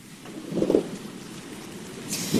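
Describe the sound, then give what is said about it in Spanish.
Steady rain hisses throughout at a moderate level in New York, with a brief low rumble near the start and a brighter burst of spatter at the end. No voices are heard. “Te saludo desde un Nueva York con lluvia”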